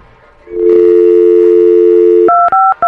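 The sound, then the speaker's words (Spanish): A steady dial tone hums for a couple of seconds, then gives way to a quick series of sharp touch-tone beeps as a phone number is dialed to place a collection-agency call. “Vamos a marcarle, por favor.”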